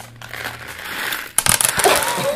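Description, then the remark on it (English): A steady gritty rustle gives way to a burst of sharp, crackling crunches as candy gravel spills from a box onto a chair and is crushed. The sound is loud, with no talking. “it sounded exactly like that because I spilled it on my chair.”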